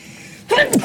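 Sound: sneeze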